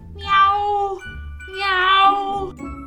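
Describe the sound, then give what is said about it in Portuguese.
Two drawn-out cat meows, loud, one after the other with a short pause between, each rising and falling in pitch over a low background hum. “E o gatinho foi chegando e miando.”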